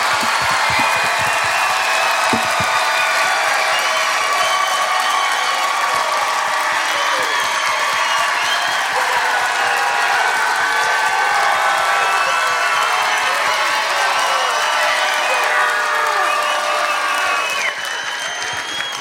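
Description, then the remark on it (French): A large crowd roars with sustained applause and cheering as performers Eric Preach and Alex Lévesque are introduced, dense clapping mixed with shouts and whoops, loud and steady for the whole stretch without letting up. “Mesdames et messieurs, faites un maximum de bruit pour Eric Preach et Alex Lévesque!”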